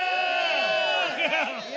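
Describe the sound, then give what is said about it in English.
An audience shouts together in a sustained, loud wash of many voices, with overlapping cries and whoops that swell slightly toward the end. “You'll find out later what we're shouting about.”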